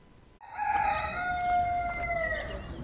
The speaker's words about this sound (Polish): Czy ten znak coś ci mówi? Kogut.